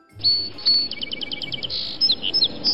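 Sparrow chirping: a quick run of bright, high-pitched tweets, several short notes in rapid succession, then a few scattered sharper chirps, moderately loud and alone with no voices.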